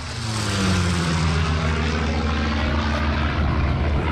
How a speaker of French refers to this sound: Et une fois que chaque plant a sa petite colline, on n'est pas sorti d'affaire, car la pomme de terre a ses ennemis, notamment un vrombissant coléoptère. Alors ce qui peut faire la pomme de terre, c'est la présence de dorifor.